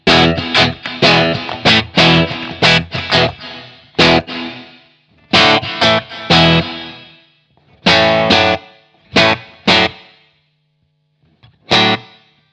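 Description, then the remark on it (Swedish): Loud electric guitar chords played through an effects pedal, short bright strums in quick bursts with pauses between, each trailing a brief slapback-like echo; no talking. “den blir lite så här, den blir inte som ett slapback-eko men den blir lite den effekten.”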